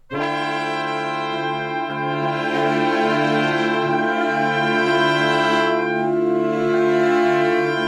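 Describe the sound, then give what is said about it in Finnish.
A software sampler instrument in the Logic music application plays rich, sustained electronic chords that shift a few times, holding steady and fairly loud for several seconds with no voices. “Vieraaksi tulee säveltäjä, äänitaiteilija, esittelee meille lempi Softa Synan samplerin, joka löytyy ainakin tuolta Logic-nimisestä musiikkisovelluksesta.”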